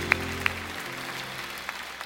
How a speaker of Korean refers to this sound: 하나님께 영광의 박수를 드리겠습니다. 할렐루야.